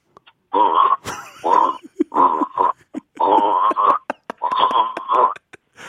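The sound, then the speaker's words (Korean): A person imitates a bullfrog as a final encore, making a series of deep, throaty, grunting croaks in rhythmic bursts, about six loud voiced pulses in a row with short gaps between them. “저 하, 황소개구리 마지막 앵콜임 앵콜로 끝날게요.”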